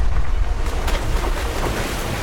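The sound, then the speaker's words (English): A steady, roaring wash of Atlantic Ocean surf on an isolated African coast, with a couple of brief surges as waves break, all mixed with gusty wind noise and no voices. “A constant battle is fought against the fierce Atlantic Ocean to harvest the seabed.”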